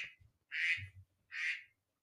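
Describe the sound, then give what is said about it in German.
An alarm clock goes off with three loud, harsh, nasal bursts that sound like duck quacks, the first one short and the next two longer with short gaps between. No one talks over it. “Was war denn das jetzt? Mein geheimer Wecker für mein, mein geheimer Wecker ah.”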